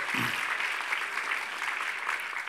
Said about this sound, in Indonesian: dengan tepuk tangan sekali lagi bagi Yesus Tuhan kita yang ajaib.